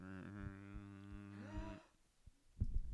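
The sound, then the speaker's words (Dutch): A low, steady droning keyboard pad tone holds for nearly two seconds, with a brief upward bend near the end before cutting off, followed by a few soft knocks. “Maar vandaar ook dat als je pads hebt op een piano, dat je soms ook een drone geluid eronder hebt.”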